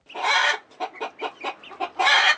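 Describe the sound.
A voice imitates a chicken, a drawn-out squawk followed by a quick run of six or seven short clucks and another long squawk, loud with no talking.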